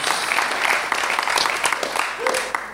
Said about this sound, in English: I mean, that is radically transformational, isn't it? And we should clap that because it is incredible, isn't it?